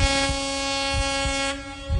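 A loud siren holds one steady, buzzy tone with strong overtones for the full two seconds, over a low rumble that thumps a few times. No one speaks.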